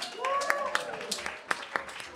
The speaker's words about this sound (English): Give me a round of applause, guys.